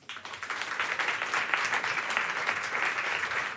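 Steady applause from an audience fills the room, a dense wash of many hands clapping at once, holding at a fairly even level for a few seconds without any voices.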